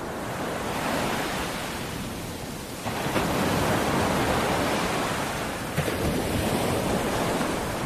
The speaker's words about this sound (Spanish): El mar. El mar tan terrible, tan infinito.